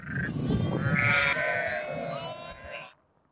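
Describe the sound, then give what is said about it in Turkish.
Sheep and lambs bleat in overlapping, wavering cries as lambs seek their mothers by smell and sound to feed, running almost continuously for about three seconds before cutting off, with a low rumble of background noise underneath. “Annesini bulan kuzu karnını doyurmaya başlıyor.”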